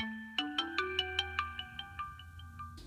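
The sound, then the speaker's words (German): A phone ringtone plays alone, a bright melodic tone with a steady pulse of about a dozen quick repeated notes over a low hum, fading slightly toward the end. “Wenige Tage vor Abfahrt klingelt Lins Telefon.”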